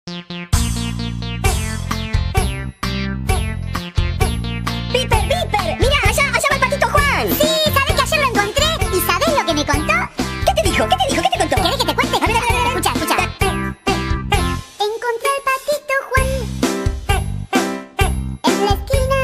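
A cheerful children's song about ducks plays loudly and continuously, with bouncy bass notes, bright tinkling accompaniment and sung vocals carrying the melody.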